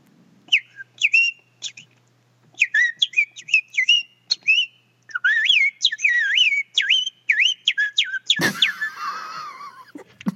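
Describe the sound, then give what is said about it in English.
Bright, chirpy whistling mimics a cartoonish songbird in quick bursts of warbling trills with short pauses, fairly loud, ending in a brief noisy rustle. “it's more like it's more like to me, it's like a cartoon bird.”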